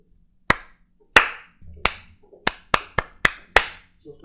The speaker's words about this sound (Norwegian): Du fikk en liten slow clap av meg, da. Jeg hørte det.